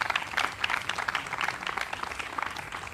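An audience gives a hand clap of praise during a morning service as the pastor comes up to join them, a dense, steady wash of many overlapping claps at moderate loudness with no clear rhythm, continuing throughout without speech.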